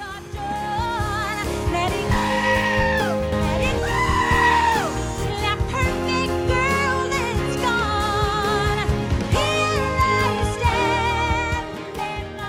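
Goat bleats, pitched and edited to carry a melody, wail repeatedly over loud, full backing music, each quavering bleat stretched into a sung phrase.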